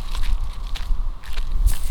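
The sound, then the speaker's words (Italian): Soft, muffled footsteps on clumps of grass along the edge of fields in the dark, a few unhurried steps at a steady pace with a faint rustle on each footfall. No one speaks. “Si muoveva a bordo dei campi, a testa china nel buio, cercando di posare i passi sulle zolle d'erba che ne attutivano il suono.”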